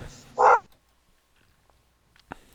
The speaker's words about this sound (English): Give me a thumbs up when the dog stops barking.